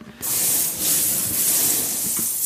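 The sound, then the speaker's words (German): A hand sifts through a bath of cherry pits, producing a dense, continuous rattling rush of countless small clicks that starts abruptly and stays fairly steady and loud for about two seconds. “Was machen die Kirschkerne? Also es hört sich erstmal grandios an.”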